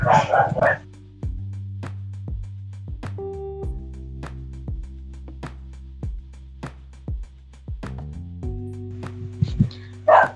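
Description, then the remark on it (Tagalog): Dogs bark in short bursts at the start and again at the very end, with a low steady hum and faint clicks filling the quiet stretch between. “Medyo maingay yung mga aso.”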